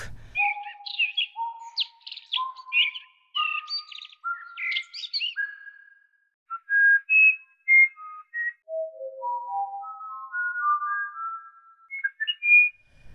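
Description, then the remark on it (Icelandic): Birdsong elements played on a tone egg: a sequence of clear whistled tones stepping upward in pitch, mixed with brighter chirpy trills, then a falling and rising run of pure notes, with no talking. “þannig að við erum með tónegg sem er hægt að spila á uh, og heyra mismunandi sagt, element úr fugglasöng”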